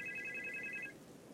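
mobile phone ringing

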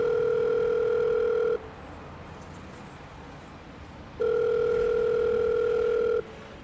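telephone ringing tone

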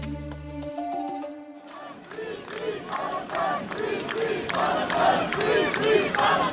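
protest crowd chanting slogans

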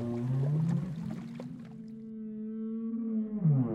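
whale call

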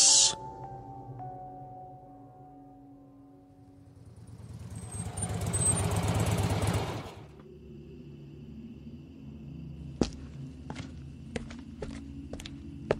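motorcycle engine revving

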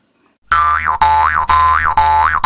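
jaw harp twanging

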